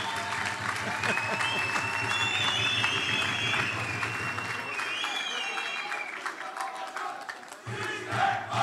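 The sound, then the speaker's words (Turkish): An audience applauds loudly and steadily for several seconds for the Hatay team, a dense crackle of many hands clapping, with voices and cheers mixed into the crowd noise. “Bir alkış şöyle.”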